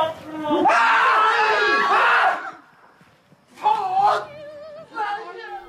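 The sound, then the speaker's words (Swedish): A man lets out a loud, drawn-out scream of shock lasting nearly two seconds, then after a brief pause gives two shorter, strained cries, all strident. “Alltså, jag vet inte om ens första reaktion på någonting hade varit det där skriket.”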